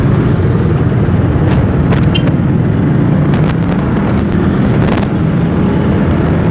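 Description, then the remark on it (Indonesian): A motorcycle engine runs loud, a steady low rumble with a roar of wind and road noise as it rides off at a green traffic light, broken by a few brief rattles. “ini adalah realita perjalanan menggunakan kendaraan roda dua mungkin roda empat kan bisa lebih lama ya”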